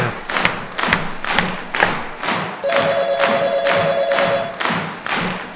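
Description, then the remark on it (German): A group at Nightcrow Studio claps together in a steady, rhythmic beat, loud, with a few voices cheering along; partway through, a sustained electronic ringing tone sounds over the clapping. “Hört mal bitte auf zu klatschen.”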